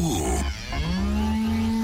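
A cow gives a long, loud moo that starts low, rises, then holds a steady droning pitch, over a busy background of crowd noise at the 2016 Salon de l'agriculture, an agricultural show with cows, sheep, straw and thousands of visitors.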